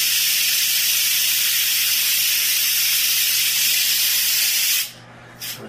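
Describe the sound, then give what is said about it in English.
Loud, steady hiss of steam rushing out under pressure as pressure is slowly released through the steam valve of a cooking unit with pasta inside, continuous for several seconds before cutting off abruptly, then a brief final puff. “You hear the steam coming out.”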